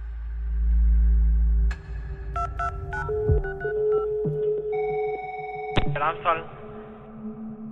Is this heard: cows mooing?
no